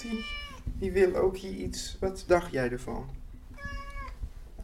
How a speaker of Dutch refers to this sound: Eh, en dat is de kat. Oh, dat die is de kat ook.